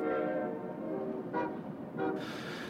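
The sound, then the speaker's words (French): Loud, sustained port sirens sound their steady horn tones over a low, continuous rumble of distant car and truck traffic, with a brighter burst near the end and no voices. “les chants des cormorans qui se mêlent aux chants des sirènes du port”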